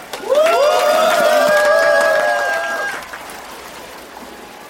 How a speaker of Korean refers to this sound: 돌고래 몇 마리가 물을 가로질러 헤엄쳐 오자 관광객들이 열없이 박수를 쳤다.